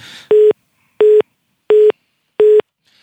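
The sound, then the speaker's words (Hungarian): A telephone busy signal while a radio show tries to call a guest: four evenly spaced, loud tone bursts of equal length, repeating steadily over about three seconds with silence between them. “de mindjárt megpróbáljuk elérni”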